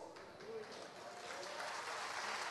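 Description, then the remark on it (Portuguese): A church audience claps for Jesus, a dense, continuous wash of applause that holds its level and swells slightly toward the end, with no voices standing out above it. “Se for para Jesus, aplauda mais forte.”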